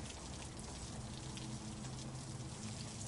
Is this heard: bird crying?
no